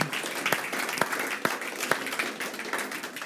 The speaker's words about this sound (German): Ja, also ich finde, das hat einen Applaus verdient.